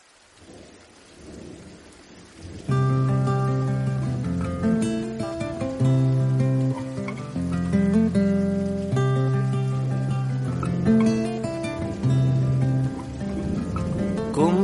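A song intro opens with a soft rain and low rumble, then a loud instrumental passage of sustained, layered melodic notes takes over and carries steadily to the end, with no singing or talk.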